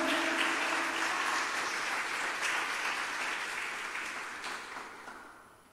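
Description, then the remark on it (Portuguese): An audience bursts into loud, sustained applause for the Messiah, a dense crackle of many hands clapping together that holds strong for several seconds before gradually tapering off. “Dê um aplauso bem forte ao Messias.”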